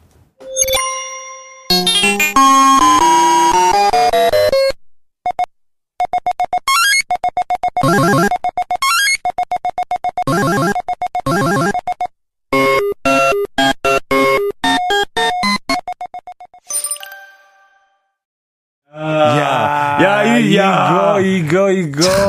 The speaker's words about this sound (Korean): 자, 학교 문방구 가면요. 기억나는 게 또 있죠. 네. 20원만 넣으면 플레이 되던 그 미니 오락기. 그 앞에 앉아서 종일 하던 친구들 꼭 있잖아요.